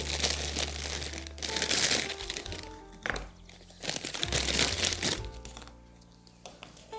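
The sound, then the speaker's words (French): A dozen biscuits are cut in half on a board, with attached ones cut apart for a clean cut, giving repeated dry, crunchy crackling in three bursts separated by brief pauses, then fading to quieter scraping. “Des fois les biscuits sont attachés entre eux, donc je les détache en les coupant pour avoir une coupe nette. Et je coupe tout en deux.”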